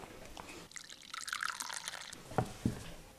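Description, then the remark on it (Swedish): Coffee pours into a cup for a couple of seconds, a soft, steady splashing trickle, followed by two light clinks of the cup. No one speaks. “Får jag hälla i kaffekoppen?”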